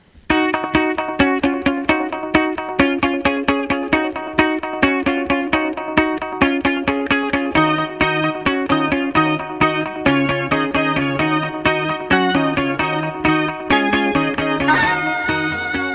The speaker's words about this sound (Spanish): Pois nada, sintonía.